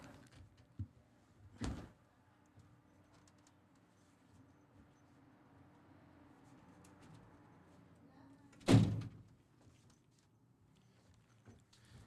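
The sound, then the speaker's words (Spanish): A door is pulled shut with a solid thud, following a lighter knock or bump earlier, with a quiet low hum filling the gaps between. “Dejen un momento y cerrar la puerta.”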